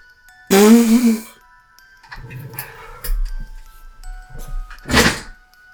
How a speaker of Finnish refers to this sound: Mikä se oli? Kuulosti niinku joku skopottaa.